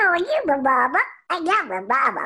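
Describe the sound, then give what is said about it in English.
A loud performer speaks a few words in a squeaky, wavering cartoon baby duck voice, the character Little Quacker from Tom and Jerry, delivered in two quick bursts separated by a brief pause. “Well, Tom and Jerry's in their sixth sixth season, and they they play all over the world, and um, and uh, I play a little baby duck called Little Quacker, and he sounds like this.”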